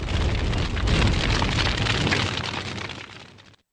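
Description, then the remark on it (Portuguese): A bomb explosion sound effect: a loud, dense roar with heavy low rumble that holds steady for about three seconds, thins slightly, then cuts off abruptly. No voices. “Solta Moab aí, Moab Fogo no Muturo para tocar fogo.”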